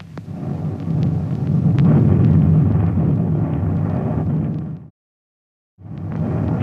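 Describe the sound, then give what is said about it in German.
Heavy artillery fire from coastal batteries shooting at attackers in an old German wartime newsreel (Deutsche Wochenschau): a loud, continuous low rumble of booms with sharp cracks on top, cutting to silence for about a second before the barrage roars back. “Das Feuer der Küstenbatterien schlägt den Angreifern entgegen.”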